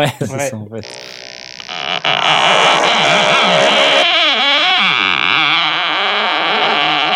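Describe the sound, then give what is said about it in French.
A wooden door creaks open very slowly, a loud, drawn-out groan whose pitch wavers and bends for several seconds, sounding exaggerated and theatrical, like a foley sound effect from a BBC sound library. “Ah, Déjà, il n'y a aucune porte qui s'ouvre aussi lentement.”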